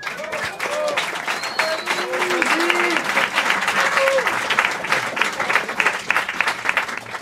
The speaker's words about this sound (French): mon attaché de presse, qu'on peut applaudir très fort.